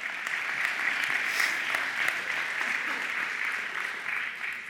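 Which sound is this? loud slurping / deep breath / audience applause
audience applause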